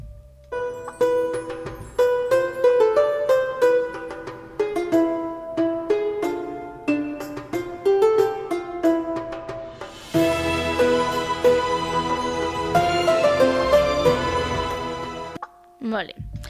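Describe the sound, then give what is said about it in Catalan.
Arabic-style instrumental music with a winding melody of quick, bright notes over a low drone; partway through the texture thickens into a fuller, sustained passage before cutting off abruptly. “Si ara jo us poso aquesta música, quines persones us podeu imaginar que pot ser?”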